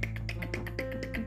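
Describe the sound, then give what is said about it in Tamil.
A quick, steady run of about ten sharp, crisp taps, evenly spaced, mimicking a stonecutter chiseling and breaking rock on a mountain, over a faint low hum with no talking. “டிக்குன்னு சத்தம் என்னடா இது சத்தம் அப்படின்னு பார்த்தா அவர் காலை யாரோ பேத்தி எடுக்கிற மாதிரி இருக்கு மிஞ்சு பார்த்தா அங்க ஒரு கல் உடைக்கிறவர் மலையை உடைச்சுக்கிட்டு இருக்காரு tick tick tick tick tick tick டிக்னு”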